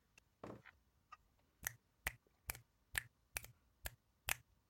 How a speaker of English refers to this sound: I hope you heard that. is that what is that? Is it you clicking your fingers? I was snapping. Yeah. Mm. You know, because like in the like 80s a poetry. 90s, yeah, they always thought like open mic, you snap your fingers.